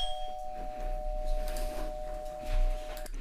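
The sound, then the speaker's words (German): An electronic doorbell rings with one long, steady tone that holds for about three seconds before cutting off, heard indoors at moderate volume over faint room noise. “Du hast wahrscheinlich gerade die Klingel gehört, falls ich es nicht rausgeschnitten habe.”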